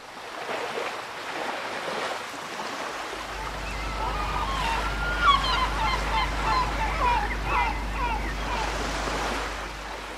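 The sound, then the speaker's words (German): Waves wash steadily onto a beach by a blue sea with an island on the horizon and an old town with a palm-shaded promenade behind, while a flock of seabirds or geese honks and calls loudly, with a low rumble joining in after a few seconds. “Vor mir ein blaues Meer, eine Insel am Horizont, eine alte, schöne Stadt im Rücken, in der Palmen die Uferpromenade beschatten und in deren Gärten die Zitronen blühen.”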